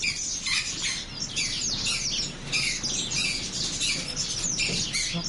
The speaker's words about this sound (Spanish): Entra, te enseño la tienda. Dentro hay jaulas llenas de pájaros.